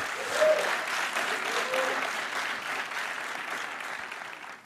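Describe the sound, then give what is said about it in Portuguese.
Sustained audience applause, a dense crackle of many hands clapping that holds steady for several seconds and eases slightly toward the end, with no talking over it. “Se você recebe isso, dê para ele uma forte salva de palmas.”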